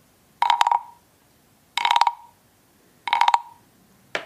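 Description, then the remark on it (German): A wooden turtle instrument with a stick attached on top is scraped with the stick in a music room in three even, ratcheting strokes and the start of a fourth. Each stroke is a loud, buzzy, clicking rasp with a strong mid-pitched tone, separated by brief pauses. “es ist so eine, es ist so eine Holzschildkröte ja, mit, so einem, so mit so einem Stängel oben dran, oh.”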